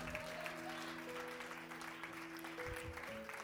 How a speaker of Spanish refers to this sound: Solo un aplaude, pero con ella me conformo.